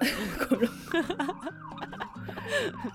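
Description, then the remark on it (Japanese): A police car siren wails from outside, its rising and falling tone fairly faint behind voices and bits of laughter. “このパトカーがうるさいからので、これをこのプープープーがあるのもなかなかいいけどね”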